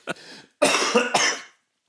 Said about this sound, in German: Ah, hast du da noch ein bisschen Husten? Oh, hör auf, ey. Wo kommt der denn her? Ja, ich, ich, weiß genau, woher der kommt. Der kommt tatsächlich aus Bochum.